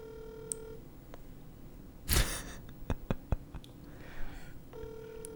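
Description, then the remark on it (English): A phone's ringback tone on an outgoing call: one steady ring at the start and another beginning at the end, with handling noise, a breathy rustle and clicks in between. “she probably won't answer, or she's talking.”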